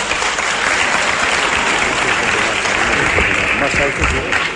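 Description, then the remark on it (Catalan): A crowd applauds steadily, dense clapping filling the whole stretch at an even, loud level without pauses, with a faint murmur of voices underneath. “Si quieren que lo hagamos breve, ni aplaudan ni abucheen, ¿eh?”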